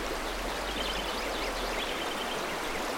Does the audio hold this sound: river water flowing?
yes